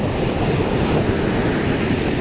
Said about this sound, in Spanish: Lo que quiero es disfrutar lo que más me gusta. Y ahora estoy disfrutando, que es el mar. Estoy en mi playa favorita de Cancún,